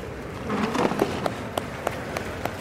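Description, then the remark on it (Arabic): A brief burst of audience applause at a graduation ceremony as a graduate's name is called, thinning into a few isolated, evenly spaced claps over a murmuring crowd, heard from within the crowd. “ايش فيك سيب الجوال وصفق لاخوك”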